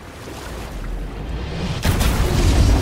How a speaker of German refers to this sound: Versuche das Gleichgewicht zu halten. Das Boot schwankt, ich werde...